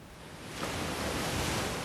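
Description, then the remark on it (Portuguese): A sea wave breaks on the shore, a broad hiss of surf that swells after a brief moment and then holds steady, moderately loud, with no voices. “simplesmente uma onda do mar a rebentar.”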